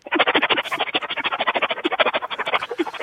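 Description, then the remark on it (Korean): A high-school senior girl on a radio show imitates a pressure rice cooker releasing steam as the rice finishes cooking: a fast, steady train of loud, raspy hissing pulses, about ten per second, running unbroken for three seconds with no talking. “압력밥솥 밥 치사되는 소리 준비했습니다.”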